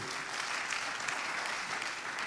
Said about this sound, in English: You, you, you, give Lord a round of applause for that.